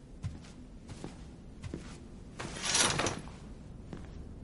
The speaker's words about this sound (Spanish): De noche, Scrap lee un libro sentado en su cama. Se levanta al oír la puerta del gimnasio, descorre las cortinas y se asoma.